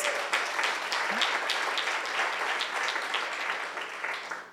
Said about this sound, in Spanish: Así que démosle un aplauso a Dios por nuestros jóvenes.